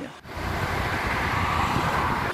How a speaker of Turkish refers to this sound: Trafik Bodrum'da da, İstanbul'da da aynı.